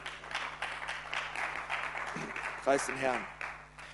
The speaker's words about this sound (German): Danke für die fünf Klatscher.